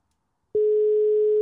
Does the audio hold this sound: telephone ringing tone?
yes